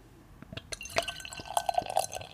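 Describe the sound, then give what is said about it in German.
Dark beer is poured into a glass: a soft splashing pour with a few bright glassy clinks, then a run of quick gurgling glugs toward the end. No one speaks. “Ich schütte das jetzt mal ein.”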